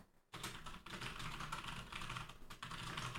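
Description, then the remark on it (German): Rapid, continuous typing of a note on a computer keyboard, a dense stream of crisp key clicks starting after a brief pause and running steadily for about three seconds, with no voices. “Ich muss mir einfach mal diese, das, das werde ich mir jetzt sofort mal notieren, dass ich diese Liste einfach jetzt ab jetzt mal aufhaben werde.”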